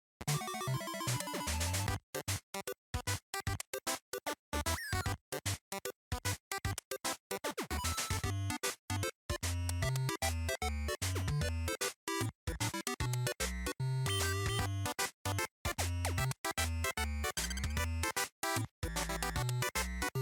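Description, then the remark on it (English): Original eight-bit NES system music, an original eight-bit composition, plays on its own, loud and busy, with buzzy square-wave melodies over a pulsing bass line, quick choppy notes and brief stop-start gaps. “is the system music on the NES? Oh, so classic. good! It's so, so, good. It's so good. It's uh, you know, a, an original eight-bit composition.”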